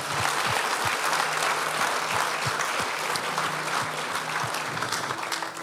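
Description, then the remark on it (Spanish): An audience at a morning church service applauds God steadily, a dense wash of many hands clapping at an even loudness throughout, with no voices standing out. “Give, give, give God a good hand.”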